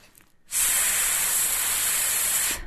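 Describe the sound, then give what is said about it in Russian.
A person demonstrates a breathing exercise into a microphone, imitating the hiss of a deflating balloon by exhaling with the tongue between the teeth, pushing out one steady, loud, high-pitched breathy hiss that lasts about two seconds before cutting off. “И э, здесь можно использовать такие способы или метафоры, как, знаете, когда шарик э, сдуваешь, и он так свистит.”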